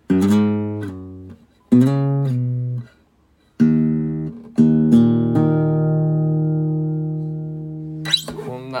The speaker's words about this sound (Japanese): アンバランスなギターすごいですねあのいでもねこれがすごくあの個性があってまああの一言で言うとそのいいギターじゃないんですよ